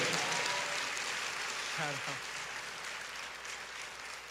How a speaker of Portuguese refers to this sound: E quem crê nisso, bata uma salva de palmas para Jesus, bem forte aí.